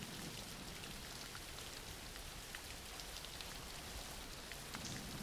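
nature, background rain

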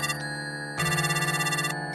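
signal or alarm, mobile phone ringing

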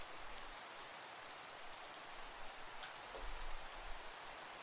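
nature, rain falling

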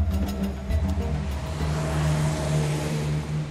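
vehicle, street traffic

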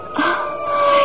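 vehicle, ambulance siren approaching

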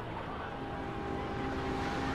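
vehicle, boat engine

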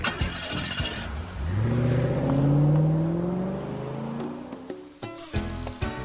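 vehicle, car engine revving

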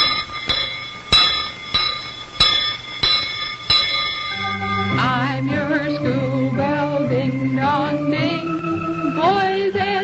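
signal or alarm, bell ringing

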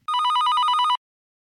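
signal or alarm, telephone ringing

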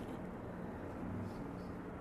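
vehicle, helicopter flying overhead

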